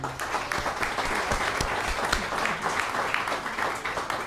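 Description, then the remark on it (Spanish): Sustained applause from an audience for two guests, a dense crackle of many hands clapping steadily for several seconds, with no voices standing out. “Les damos un fuerte aplauso a ellos.”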